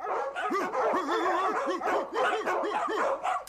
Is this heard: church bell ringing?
no